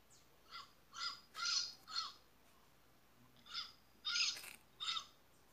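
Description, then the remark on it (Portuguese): A parrot squawks repeatedly, about eight harsh, raspy calls in two quick bursts separated by a short pause. The calls are loud, with no talking. “Isso mesmo, você acertou. É o papagaio.”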